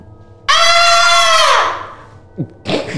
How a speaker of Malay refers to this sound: Kau pekik bila dia Aku nak ketawa